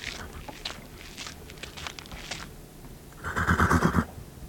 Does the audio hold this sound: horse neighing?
yes